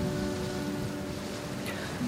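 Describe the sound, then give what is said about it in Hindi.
Steady rain hisses evenly throughout, a dense wash of falling drops with no pauses, joined by a faint low tonal hum underneath. “क्या आज इस तप रही ज़मीन को बारिश की ठंडी बूंदें आराम देंगी और जब वो छोटे छोटे मोती धरती पर पड़ते हैं तब कई दिलों को भीग जाने का बहाना मिल जाता है”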